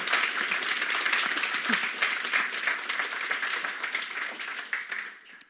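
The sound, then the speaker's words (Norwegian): Steady applause from a group fills the whole stretch, dense and continuous with many hands clapping, then thinning slightly and tapering off at the very end. “En femmer, altså. Applaus.”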